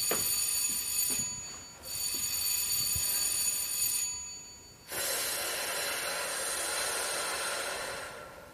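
An electric theater bell rings insistently as the third bell signal, in three long bursts separated by brief pauses, a bright metallic rattle with no voices present.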